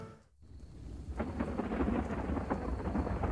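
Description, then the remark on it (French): A thunderstorm with steady rain: a low rolling rumble of thunder swells after a brief dip, under a dense, continuous patter of rainfall, loud with no voices. “Alors mettre des sons d'orage et de pluie dans une émission radio, de 1, ça n'a aucun intérêt de deux, ça n'a aucun sens.”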